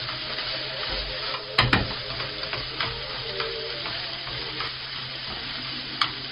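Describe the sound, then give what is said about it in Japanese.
Bitter melon sizzling and stir-frying in a pan, a steady crackling hiss with occasional louder scraping clatters of a spatula against the pan, no talking. “ということで、あとはこのゴーヤーが、いいテカリ具合に使ってきたら、お肉、豚肉と豆乳ですね。”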